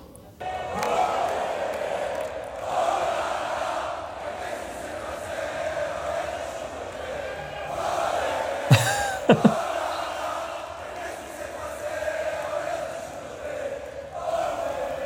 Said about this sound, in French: Donc ça, c'était dans la nuit de samedi à dimanche, l'accueil triomphal euh, à Bollard pour les joueurs du RC Lens. 15 000 supporters réunis à, 3 heures du matin pour accueillir leur équipe.